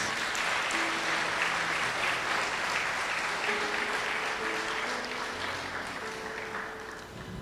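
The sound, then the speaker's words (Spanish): A church audience applauds steadily and warmly to welcome first-time visitors, the dense clapping going on for several seconds before easing slightly toward the end, with faint voices underneath. “Los, los recibimos con un fuerte aplauso.”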